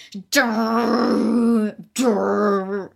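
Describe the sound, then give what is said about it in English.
A voice imitates a booming movie-soundtrack drone: a long, loud, sustained low groan of about a second and a half, a brief pause, then a second shorter droning blast. “big drones, like it's War of the Worlds crap”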